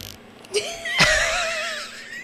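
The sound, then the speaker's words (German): A cork squeaks and creaks as it is twisted and worked out of a bottle neck: a short chirp, then a sharper scrape followed by a long, wavering squeal, fairly loud, with no talking. “Oh, ich mag Korken so gar nicht.”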